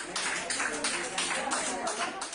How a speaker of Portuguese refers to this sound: Aplausos para simbolizar mais uma vitória contra o coronavírus